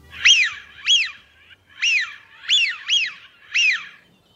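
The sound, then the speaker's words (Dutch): A Eurasian wigeon gives six clear, rising-and-falling whistles, fairly high-pitched and in uneven succession. The bird calls alone with no talking. “om te luisteren naar zijn verhaal achter het geluid van de smint”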